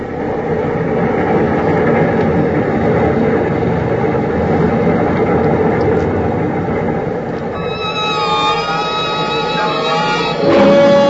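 A freight train rolls steadily along the tracks in a loud, continuous rumble, with high metallic wheel squeals rising near the end and a brief harsher clank at the close.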